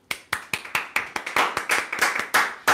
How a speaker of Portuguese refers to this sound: Hoje é meu aniversário, minha gente. Palmas para mim.